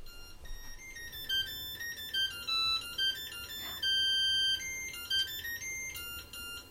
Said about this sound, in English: i found it it's Bach's minuet in g minor sounds like this